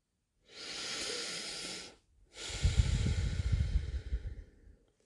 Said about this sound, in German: Ich habe erst mit dem Mund ein mit der Nase lange aus und bin dann komplett umgestiegen auf Nasenatmung.